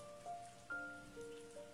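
A steady, dense hiss of heavy rain pouring down in a sudden rainstorm, fairly soft in level, with a few sustained musical tones drifting over it and no one speaking.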